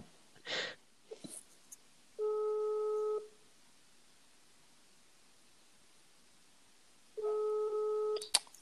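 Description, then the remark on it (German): A phone ringback tone sounds twice as a call is placed again, each a steady buzzy tone lasting about a second with a long silent gap between, over faint background hiss and a few soft rustles. “Ich rufe nochmal an, damit er weiß, dass wir ihn erwarten.”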